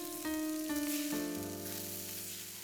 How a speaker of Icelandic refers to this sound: Rauðglóandi kól snarkandi gaseldur unaðs ilmur í loftinu